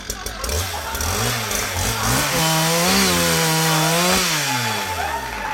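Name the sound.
chainsaw running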